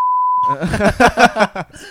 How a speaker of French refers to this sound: oui, remets-nous des bips.